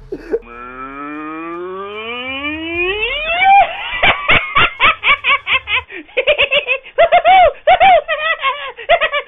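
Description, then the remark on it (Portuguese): A 'crazy cow' audio clip played by the editor: a cow moos in a long, rising bellow, then breaks into a rapid string of short, choppy moo bursts that stutter loudly in quick rhythm. No one talks over it. “Tipo, editor, toca o áudio da vaca louca aí.”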